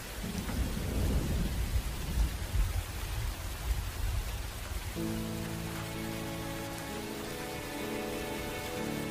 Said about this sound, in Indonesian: Aku lagi menikmati hujan di bulan Februari loh.